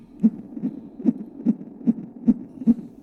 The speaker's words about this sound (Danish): Øhm, den næste lyd er øhm, lyden af min søn, der nu er 10 år gammel. Det var en lyd, der blev optaget, da han lå inde i sin mors mave.